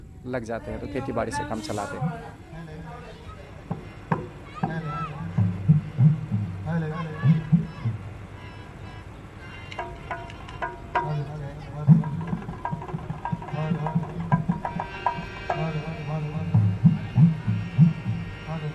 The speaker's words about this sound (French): Un groupe électrogène sur le fond sonore.